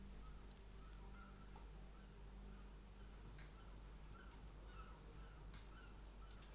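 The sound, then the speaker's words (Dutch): Faint bird calls, probably gulls, repeat sporadically over a steady low background rumble, with short bright clicks scattered throughout and no one speaking. “Nou, ik hoor uh, meeuwen zijn waarschijnlijk.”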